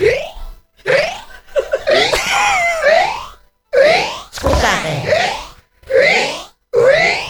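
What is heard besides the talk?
hiccups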